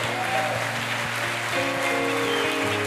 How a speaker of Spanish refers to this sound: Amén y amén. Fuerte ese aplauso.